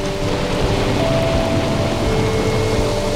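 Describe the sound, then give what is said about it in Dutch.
Steady, dense rain pours down continuously during a thunderstorm, with a constant low rumble underneath and no voices or pauses. “Maar die krachten die vrijkomen bij zo'n onweersbui eigenlijk.”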